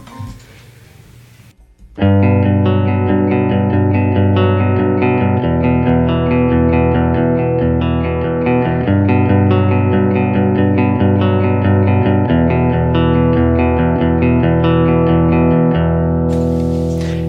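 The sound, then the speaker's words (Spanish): Distorted electric guitar on a Vintera II rings out in loud, sustained chords for about fifteen seconds, changing chords every few seconds over a steady low end, after a brief murmur and pause. “y vamos a escuchar ahora cómo se escucha con la Vintera 2.”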